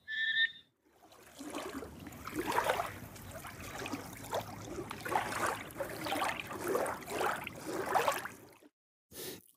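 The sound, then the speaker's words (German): Water of the Sediner See lake laps and splashes in a steady series of soft washes for several seconds, after a brief high whistle-like tone at the very start. No one speaks. “Und äh, zuletzt hört ihr noch Wasser im Sediner See plätschern,”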